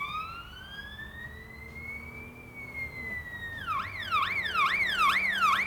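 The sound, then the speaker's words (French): A siren wails in a long rising tone, then switches to a rapid yelping warble that grows louder, with no voices audible. “Des cris et des sirènes constituaient les chœurs.”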